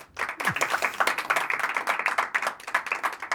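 An audience breaks into steady applause to welcome a guest at a Night of Books event on 1 October. Many hands clap densely and continuously at an even loudness for a few seconds, with no one speaking over it.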